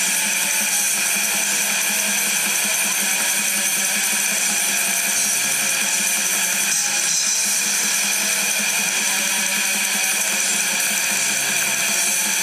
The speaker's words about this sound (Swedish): Lyssna på de här ångestskapande riffen som kommer här nu.